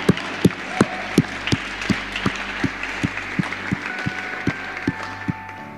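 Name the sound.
audience applause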